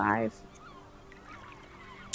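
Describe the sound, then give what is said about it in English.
A person lets out a single loud, harsh squawk in imitation of an angry seagull, lasting a fraction of a second, followed by near silence with faint background murmur. “snatches a seagull out of the air and starts squawking at it angrily”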